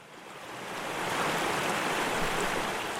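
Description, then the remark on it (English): A steady, rushing wash of flowing water, like a creek or small river, swelling slightly after the first second and then holding at an even, moderately loud level with no voices. “Picture yourself standing by a creek or a small river flowing through a, a forest or a glade of trees.”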